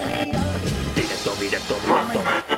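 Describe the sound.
A rap song kicks in with a dense, full-sounding backing track and a voice entering over it, steady and fairly loud from the start.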